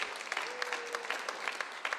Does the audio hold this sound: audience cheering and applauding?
yes